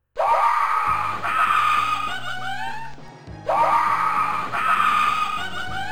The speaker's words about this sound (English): and every so often you'll get like a random encounter of some monster, and it'll let out this like yelping scream that sounds like it's like echoey and terrifying.